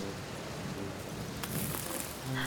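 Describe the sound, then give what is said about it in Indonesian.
A violent storm in a forest: steady, dense rainfall pours down with a constant hiss, strong wind gusts swelling briefly against trees and leaves, and a faint low rumble suggesting thunder. No voices are present. “Pada suatu hari, hutan dilanda badai yang sangat dahsyat angin bertiup sangat kencang, menerpa pohon dan daun-daun.”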